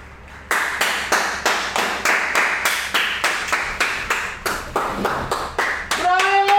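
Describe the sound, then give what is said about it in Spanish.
People clap together at 9 p.m. in applause for doctors, in a steady, loud rhythm of about three claps per second, keeping the beat for several seconds before a high, wavering tonal sound joins in at the end. “Vení, vamos a aplaudir.”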